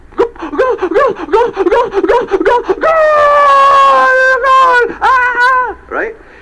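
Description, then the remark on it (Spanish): A voice mimics the crowd at a football match celebrating a goal: about a dozen rapid rhythmic 'eh' shouts, then a long sustained, rising cry held for two seconds, a second drawn-out shout and a short final yell, loud. “¿Cuántos de ustedes han ido a, un partido de fútbol? ¿Eh? ¿Gritan ahí? ¡Eh, eh, ¡Gol!”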